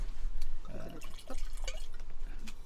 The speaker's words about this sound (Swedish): Men du får, inte, behöver inte hälla upp halva glas för vi, det känns som vi häller ut väldigt mycket i onödan.